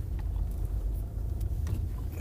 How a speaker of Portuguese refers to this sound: Estou agora aqui a estacionar o carro, vou ter que dar a volta para ir ali ao continente